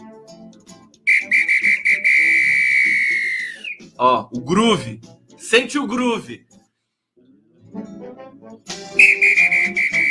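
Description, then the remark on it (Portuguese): A loud, steady whistle blast of about three seconds, then a man speaks briefly, then the shrill whistle returns for a shorter blast at the end, with a punchy rhythmic feel. “Eu, eu toco apito, eu tocava apito quando tava, participava da banda da escola, tá, essas coisas.”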